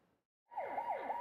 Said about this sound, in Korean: 사설 구급차가 차선을 넘나들며 위험하게 달립니다. 당시 운전자는 환자가 없는데도 시속 160km 이상으로 달리는 불법 주행을 했습니다.